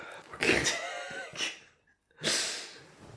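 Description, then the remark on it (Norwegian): A man yawns, a drawn-out breathy inhale that swells and fades, followed by a pause and a second airy exhale. No talking, just the breathing. “Han begynner å gjespe.”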